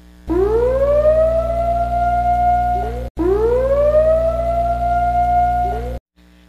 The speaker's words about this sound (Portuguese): Sirene tocada, cara, tudo que eu falei foi spoiler dos últimos episódios. Mas a partir desse barulho que você viu desta sirene, significa que eu irei atingir o apogeu do spoiler.